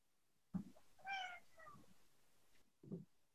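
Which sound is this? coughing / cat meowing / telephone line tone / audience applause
cat meowing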